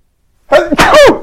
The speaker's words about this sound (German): Gesundheit!